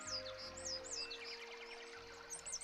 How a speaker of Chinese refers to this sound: 树上有鸟儿在唱歌。